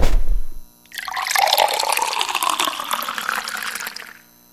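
Water pours steadily into a glass for about three seconds, fairly loud, its pitch shifting as the glass fills, after a short knock at the start, in a radio broadcaster's booth before a show. No one speaks.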